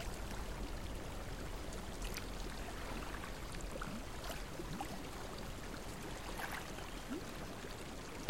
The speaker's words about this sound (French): Laissez-vous bercer par les sons que vous entendez. Tout autour de vous est silencieux, à l'exception du tintement de l'eau de la source.